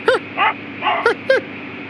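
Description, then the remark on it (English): A small dog yaps through the thin, tinny speakers of a Ford car radio: three sharp, high barks spread over two seconds, with softer whining yips between them over a faint hiss, and no talking. “And you hear the radio click on and the tuner start moving around the frequency range and all of a sudden it hits and the static lessens and you hear out of the tinny speakers of this model Ford barks.”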